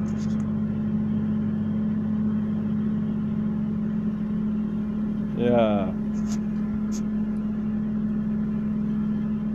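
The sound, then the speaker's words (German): A tractor engine drones steadily in the background, a constant low idling rumble that never lets up. Partway through, someone briefly says a single word over it. “Das, was ihr jetzt gerade im Hintergrund hört, das ist ein Trecker.”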